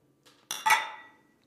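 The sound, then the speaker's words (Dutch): Beer glasses holding a strong tripel beer clink together in a quick toast, a soft touch followed by a bright, ringing double chime that fades out over about a second, with no talking. “Nou, proost boven mengpaneel. Lekker, proost. Proost.”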